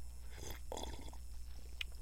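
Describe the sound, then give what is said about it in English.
A quiet slurp of someone sipping hot coffee, followed by soft mouth sounds and a small click, with no talking. “it's time to just sit back, uh, sip some sip some brew, sip some coffee, some Java.”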